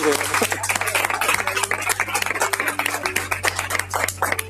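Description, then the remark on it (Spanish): An audience applauds an 87-year-old woman steadily for several seconds, a dense, even patter of many hands clapping at a fairly loud level, with a low constant hum running underneath. “Un aplauso para ella.”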